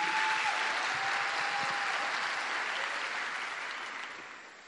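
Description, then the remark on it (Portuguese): An audience applauds in a steady, dense wash of clapping that holds for several seconds, then begins to thin and fade toward the end. No one speaks over it. “Esses aplausos não são para mim, não.”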